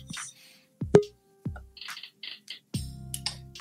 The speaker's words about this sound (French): Alors, j'entends le bruit de la, clochette de la porte d'entrée du StreamYard. Vous savez, il y a une petite clochette sur la porte.